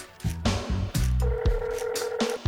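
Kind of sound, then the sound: signal or alarm, mobile phone dialing tones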